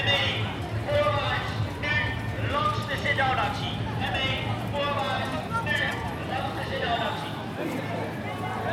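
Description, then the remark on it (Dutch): Police horses' hooves clop on hard pavement on a sunny square amid a busy crowd, steady rustling footsteps and a low rumble underneath, with people talking in the background throughout. “Door agenten te voet en te paard, ME-busjes en waterkanonnen.”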